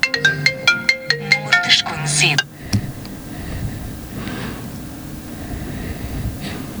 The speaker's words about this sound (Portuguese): Bom, o telefone tocou logo, logo no início do programa, mas rapidamente desapareceu.